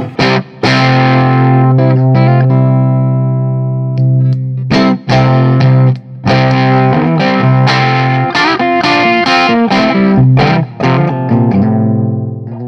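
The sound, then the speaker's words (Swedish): Overdriven electric guitar through a tube amp pushed into power-tube distortion: sustained, slightly gritty chords and picked notes with a rich harmonic buzz, played loud and continuous with a few brief pauses. “Men jag tänkte, hur, om man får höra den fina slutstegsröret eh, styra över så låter det så här.”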